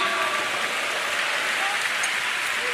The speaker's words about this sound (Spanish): Dale un fuerte aplauso a Cristo, aleluya.